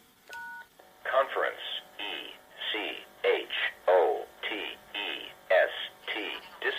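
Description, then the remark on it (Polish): A brief electronic two-tone beep, then a clear, tinny automated voice announces "Conference Echo Test Disconnected" in a steady, evenly paced cadence, like a recorded telephone system prompt, as the connection to a test server is ended. “Mamy informację Conference Echo Test Disconnected.”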